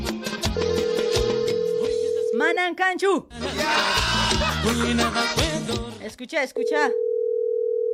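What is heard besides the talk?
phone call ringing tone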